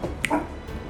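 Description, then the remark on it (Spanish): A single short, sharp yip or bark from the speaker's dog, brief, with no one talking. “lo siento mi perro”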